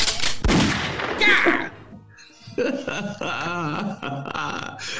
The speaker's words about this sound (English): Man, we gonna hit the gunshot.